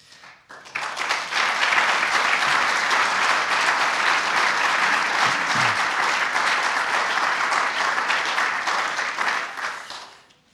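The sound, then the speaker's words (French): An audience at the Prix Gaïa award ceremony bursts into sustained applause for the laureates, a dense, steady wash of many hands clapping that rises quickly, holds at a loud level for about nine seconds, then tapers off at the end. “Avant de passer à la remise des distinctions, au cours de laquelle vous aurez l'occasion d'applaudir individuellement chaque lauréat et chaque lauréate”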